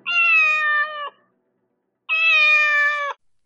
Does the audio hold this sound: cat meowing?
yes